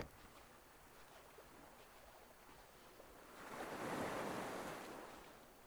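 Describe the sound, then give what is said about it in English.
Small, calm waves lap softly on a flat beach, a low steady wash with one gentle swell that rises and slowly recedes. Quiet, with no voices. “Small waves glide slowly over the flat beach.”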